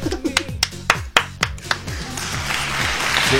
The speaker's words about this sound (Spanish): Yeah, un aplauso.